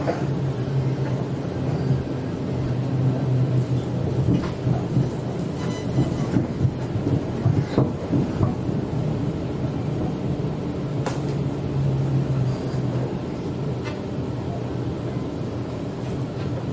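Inside a moving Sydney commuter train in Australia, stopping at Newtown station: a steady, loud low rumble with a humming motor tone that rises and fades, broken by occasional sharp clacks and rattles from the carriage. No one speaks.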